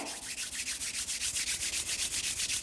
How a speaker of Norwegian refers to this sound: Så ta håndflatene sammen og gni hendene frem og tilbake.